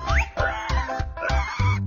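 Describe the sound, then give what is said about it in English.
A pig oinks, a quick series of four or five short, nasal grunts in a steady rhythm, fairly loud, with no one talking. “She saw pig,”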